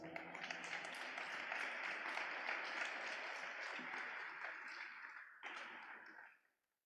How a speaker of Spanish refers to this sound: ¿Puedes darle un aplauso a papá Dios?